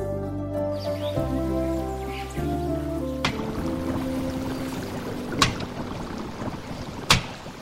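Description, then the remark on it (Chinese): A few sustained musical notes give way to steady watery sloshing of water being scooped, punctuated by three sharp, loud thuds of firewood being chopped, spaced a couple of seconds apart, to boil water for cooking. No one speaks. “呃，哎，这什么声音啊？哎，我我说你劈柴舀水，这这是干什么呢？”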